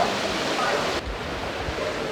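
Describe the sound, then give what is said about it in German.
Continuous splashing and churning of water in an activity pool during a water aerobics class, a dense, steady wash of sound that stays fairly loud throughout, with faint indistinct voices mixed into the background. “Ja, wir gehen jetzt mal rüber zur Wassergymnastik, die hier gerade im Aktionsbecken läuft.”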